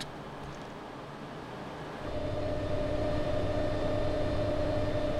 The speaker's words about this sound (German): Ich laufe die Aare darauf zum Kraftwerk und lasse mir das zeigen. Unten in der Nähe vom Fluss hört man, wie das Wasser zu den Turbinen rauskommt.